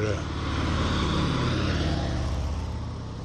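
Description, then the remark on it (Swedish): A motorcycle roars past in Liechtenstein, its loud engine droning steadily for a few seconds before easing off slightly at the end. “folk åker MC i Liechtenstein uppenbarligen.”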